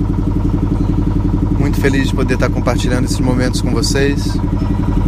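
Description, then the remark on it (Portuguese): The engine of a small rented boat chugs steadily and loudly as the boat passes the ghats in Varanasi, its low rhythmic drone running throughout while a man speaks over it. “Esse barulho que vocês estão ouvindo é do barco.”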